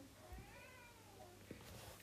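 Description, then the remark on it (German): A male cat meows in a long, drawn-out, wavering cry, with a couple of soft thumps underneath and no one speaking. “Und warte, ich muss kurz meinen Kater reinlassen.”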